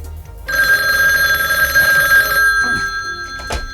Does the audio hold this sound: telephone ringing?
yes